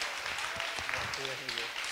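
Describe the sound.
An audience at an evening church youth group gathering applauds a young man steadily for about two seconds, a dense wash of clapping, while a voice calls out over it near the end.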